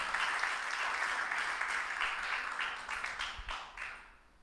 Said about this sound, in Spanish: Yo quiero dar un aplauso por las mujeres. Aplausos, aplaudan a las mujeres. Apláudale, apláudale.